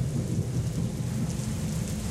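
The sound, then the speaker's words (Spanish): A thunderstorm rages with a deep, continuous rumble of thunder beneath a steady wash of heavy rain, loud throughout with no voices. “Dejé el timón al viento y a la tormenta.”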